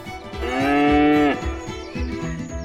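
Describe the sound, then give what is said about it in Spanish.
A single long cow moo rises and holds loudly for about a second before breaking off, followed by softer shuffling and rustling sounds of a stable divided into compartments. “El establo está dividido en compartimentos. Matthew me explica que sus vacas normalmente son ordeñadas de forma mecánica en la nave”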